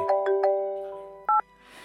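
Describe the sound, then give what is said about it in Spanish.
A telephone rings loudly with a bright electronic melody of quick chiming tones, followed by a short, sharp double-tone burst, with no voices present. “Pasadas unas horas, el fuerte sonido del timbre del teléfono la sobresalta súbitamente.”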